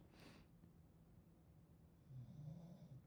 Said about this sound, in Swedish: nu ligger hunden och snarkar här lite. Jag vet inte om det hörs.